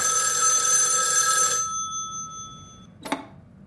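A telephone bell rings loudly and steadily for about a second and a half, its metallic tone fading away, followed by a sharp clunk, like a receiver being lifted. No voices.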